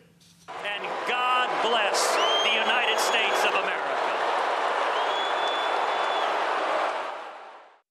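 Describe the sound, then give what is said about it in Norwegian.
The Republican party convention crowd in Cleveland roars with cheers, shouts and booing as Ted Cruz is booed, dense and loud, with sharp whistles cutting through. The noise swells in quickly, holds steady for about seven seconds, then fades out. “skal vi høre fra forsamlingen i Cleveland som blir stadig liv livligere.”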